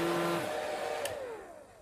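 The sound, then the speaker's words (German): A steady, whooshing electric motor like a hair dryer or blender whirs loudly, then its hum slides lower in pitch as it winds down over a couple of seconds. “Auch wenn niemand einen Mixer oder einen Föhn im Auto anschließt”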